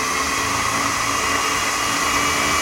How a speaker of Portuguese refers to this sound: Eu vou processar isso aqui e a ideia é fazer que chegue na textura do molho pesto. Essa você já conhece, né? É uma pasta, fica ali, sabe? Vamos lá então. Paciência aqui, vou fazer barulho.